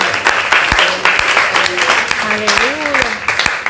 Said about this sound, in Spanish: Dale, dale fuerte aplauso al Señor, poderoso es el Señor.